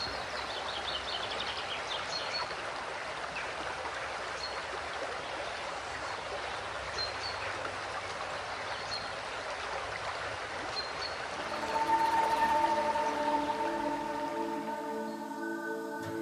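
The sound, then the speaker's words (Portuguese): A waterfall rushes in a steady, dense roar throughout, with faint bird chirps scattered above it; near the end a sustained tonal hum joins the water. “E antes de começarmos nosso exercício matinal, aqui vai 15 segundos de som de cachoeira limpinha para você.”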